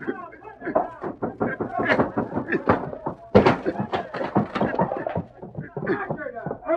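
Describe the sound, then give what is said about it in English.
A single heavy thud, like a door being kicked down, cuts sharply through the middle of busy, overlapping voices, with smaller knocks and bumps scattered around it. “I hope you won't find your position embarrassing when the boys kick the door down.”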